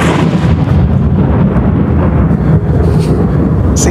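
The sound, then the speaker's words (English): A loud, sustained roll of thunder rumbles steadily throughout, deep and heavy with a crackling, rain-like texture on top. No voices are heard. “those are those are my two clips. My wave yeah. and my lightning.”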